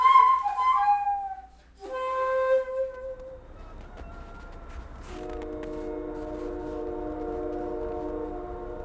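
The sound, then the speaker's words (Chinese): A train passes nearby below a hill in Yanji, northeast China, in winter. It sounds its horn in two loud, steady blasts, then holds a long multi-tone chord to the end, over a low continuous rumble of rolling wheels. “远处有烟囱冒着蒸汽，近处有火车经过。”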